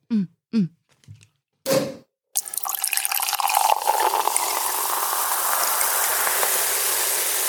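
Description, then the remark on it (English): A few brief knocks and clinks, then a liquid pour starts and keeps going, a steady bright hiss of Earl Stevens Mangoscato sparkling wine fizzing into a glass, fairly loud. “It's bubble time.”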